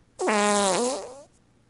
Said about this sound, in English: can you hear this fart?